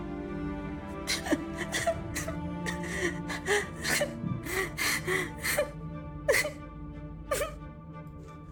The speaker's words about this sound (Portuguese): A porta tá fechada lá e ela tá trancada lá dentro. Mas quando vai se aproximando, você escuta o soluçar dela, o choro dela, saindo, passando pela, vazando pelas frestas da porta.